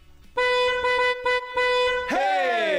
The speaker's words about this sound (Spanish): Primero va la de prueba. Esta es la de prueba, repito. Esta es solo de prueba para que recuerden cómo se toca el claxon cuando escuchas Jordi Nexa.